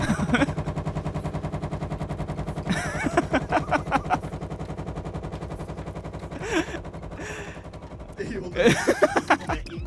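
A washing machine running: a steady, rapid mechanical rattle and hum, punctuated every few seconds by louder bursts of clattering and sloshing as laundry tumbles in the turning drum.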